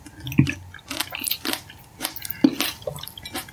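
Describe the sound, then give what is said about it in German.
Soft, wet chewing of a bite of Licorne cashew cream cheese, with irregular squishy mouth sounds and a couple of sharper clicks, moderately loud, with no talking over it. “Darauf jetzt erstmal ein Häppchen. Ich habe eine Auswahl von Licorne Cashew Frischcreme. Da nehme ich jetzt mal eins.”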